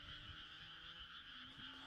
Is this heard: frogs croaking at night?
yes